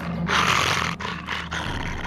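A dog wearing a muzzle growls low and rough in a continuous snarl lasting about two seconds, with brief catches for breath partway through and no one speaking.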